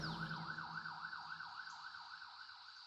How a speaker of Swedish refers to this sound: Snart kom brandbilen körandes längs med grusvägen med en himla fart. Sirenerna tjöt när de nu tog av vid nästa avfart.